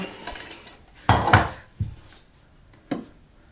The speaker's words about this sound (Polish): Nalewam troszeczkę więcej do tamtego. Resztkę dolewam do drugiego.